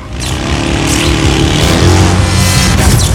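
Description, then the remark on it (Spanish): A motorcycle engine roars loudly and steadily for a few seconds, revving up as it accelerates hard while the Professor flees from Ángel on it, with no voices over it. “El profesor huye de Ángel en una moto.”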